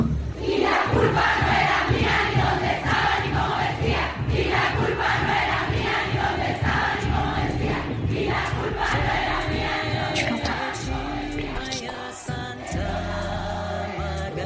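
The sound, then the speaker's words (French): A dense crowd of women rumbles and shouts in protest, a loud, sustained roar of many voices with rising cries, steady throughout. “tu l'entends. La gronde des femmes”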